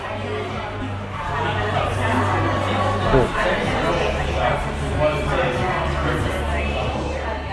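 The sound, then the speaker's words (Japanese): Busy pub interior ambience in Britain on reopening on July 4 after three and a half months of closure during the coronavirus pandemic: a dense, steady murmur of many overlapping conversations with little music, a low constant hum underneath and occasional louder clinks and voices rising from the crowd. “何かしらの音が聞こえてますけれどもこれは何ですかこれはあのパブの店内の音なんです出ましたねパブはいえっ、ー、と、7月4日に、あの、営業が再開されました。”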